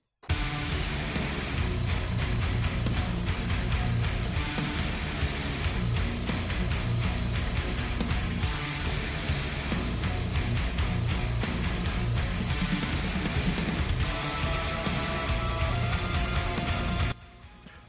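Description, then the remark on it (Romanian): Loud, dense, very heavy death metal from a band's latest album plays nonstop, in a syncopated, polyrhythmic style, with thick distorted guitars and pounding, choppy drums filling the mix, then cutting off abruptly near the end. No talking. “În principiu, o trupă foarte grea de death metal.”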